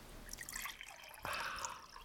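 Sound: water poured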